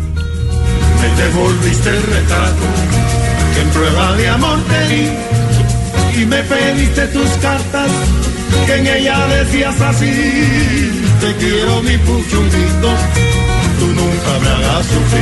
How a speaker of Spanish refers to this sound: el inventor del armónico, que es una mezcla de la guitarra y el tres cubano. Y da ese sonido especial, digámoslo, casi clásico, digámoslo, porque no es una guitarra. Suena así, mira